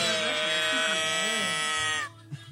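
A cow moo sound box toy lets out one long, nasal, buzzing moo lasting about two seconds, loud, before cutting off abruptly into a few faint knocks.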